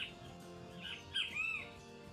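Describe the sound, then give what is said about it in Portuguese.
Harsh squawks and calls of parrots and many other birds flying overhead ring out in a noisy, overlapping burst, loudest midway through, over a steady outdoor background with no talking. “passarinhos estão doidos aqui, tá cheio, tem papagaio, tem bem tem o que você imaginar aqui sobrevoando.”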